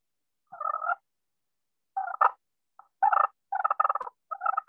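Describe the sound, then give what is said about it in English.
Soft, rolling turkey purrs made on a friction call, played in short bursts separated by brief pauses, growing slightly louder and denser toward the end. No one speaks. “I'm gonna start purring soft, and I'm gonna pick it up a little.”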